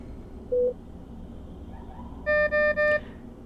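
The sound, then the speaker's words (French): An infusion machine's end-of-chemotherapy alarm beeps: one short tone, a pause, then three quick, bright electronic beeps in a row over a steady low background hum. “Et voici le bip, le bip de fin de chimio.”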